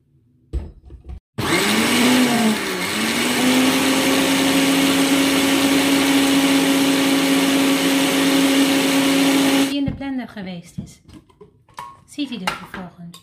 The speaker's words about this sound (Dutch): Twee eetlepels. In de blender erbij. flinke lepels. Beetje water. Bronwater. En blenderen.